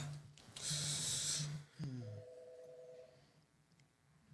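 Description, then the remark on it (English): A burst of hissy electronic noise gives way to a short chirp and then a steady two-pitch telephone beep lasting about a second, clear, with a faint low hum underneath. “That that phone throws people off.”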